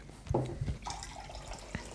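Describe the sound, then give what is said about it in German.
Ice-cold San Fabio Limonata al Limone lemonade from a 0.33-litre can splashes and trickles into a glass, a brief gurgling pour with a couple of soft clinks, then quieter dribbling and one light tap near the end. “Ach, jetzt schütte ich die. Gib mir mal das andere Glas.”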